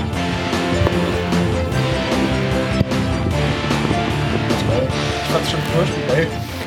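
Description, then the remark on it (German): Recorded music played from a CD plays continuously at a steady, fairly loud level, a dense mix of sustained tones and busy percussive accents filling the few seconds with no pauses. “Ja, dann hören wir in die Musik rein”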